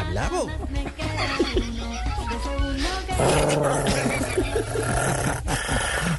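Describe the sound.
A dog growls and barks aggressively and loudly in a continuous agitated stretch, with human voices talking over it.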